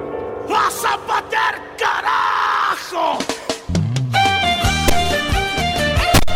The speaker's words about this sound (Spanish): Atento al grito, el grito de guerra de la canción, ¿eh?